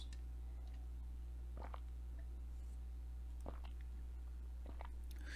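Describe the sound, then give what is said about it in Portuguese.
Someone quietly takes a sip of water, with three or four soft mouth clicks and gulps spaced a second or so apart over a steady low hum. No one speaks. “Só vou tomar um golinho de água aqui e a gente vai para esses três momentos.”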